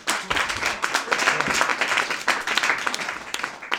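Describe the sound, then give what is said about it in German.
An audience welcomes a speaker to the stage for a talk on EU copyright, upload filters and ancillary copyright for press publishers, breaking into steady, sustained applause, a dense wash of many hands clapping at even loudness throughout, with no voices standing out. “ich übergebe dir die Bühne und einen großen Applaus zum Anfang.”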